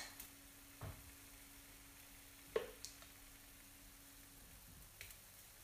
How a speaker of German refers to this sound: Okay, ich muss da gerade in die Kelle Teig reintun. Ich arbeite halt an zwei Pfannen gleichzeitig. Ist wahrscheinlich nicht so schlau, aber na gut.